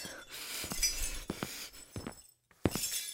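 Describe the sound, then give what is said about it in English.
A drinking glass dropped by a woman crashes and shatters, followed by a scatter of sharp, bright clinks as shards land, a brief pause, then one last loud clink. No one speaks. “Uh, she dropped a glass and she's not feeling well.”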